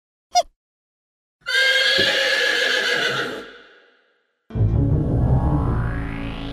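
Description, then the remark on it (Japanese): A short tap, then a loud donkey bray lasting about two seconds before fading out, followed after a pause by a second harsh, rising bray-like sound. No talking. “なんと、ピノッキオとロメオの体は、ロバになっていました。”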